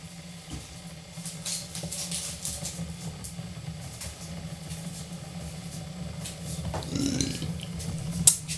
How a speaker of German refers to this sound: Das war ein Rülpser. Ein Rülpser in Ehren kann niemand verwehren. Deshalb wird er auch nicht weggeschnitten.